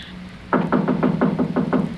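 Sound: knocking on a door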